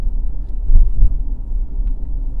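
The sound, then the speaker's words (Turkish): Low, steady traffic rumble with a vehicle passing, its engine swelling briefly before fading back into the constant background drone of road noise, on the outer neighbourhoods of a town in Bulgaria, by the bus station. “Burası biraz daha şehrin dış mahalleleri gibi. Otogar burada.”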